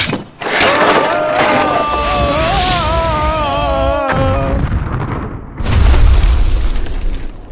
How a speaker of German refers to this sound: Oh, verdammt. Point Dread ist in tausend Stücke zerbrochen.